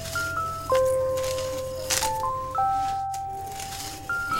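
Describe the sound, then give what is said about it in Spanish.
A hand fan being waved, giving a few soft, papery swishes and rattles at uneven intervals, over a simple melody of sustained electronic tones. “Estoy agitando un abanico porque hace mucho calor.”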